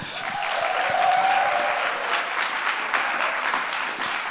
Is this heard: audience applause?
yes